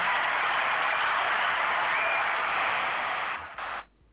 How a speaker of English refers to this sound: They cheering awful long for y'all. what? Um, I said they're cheering awful long for y'all.